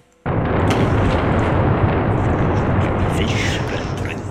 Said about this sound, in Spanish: Super truenos.